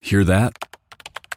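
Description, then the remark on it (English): A short spoken question, then a quick, uneven burst of about ten crisp clicks from someone typing on a computer keyboard, fairly loud. “That's the sound of someone trying to steal your crypto.”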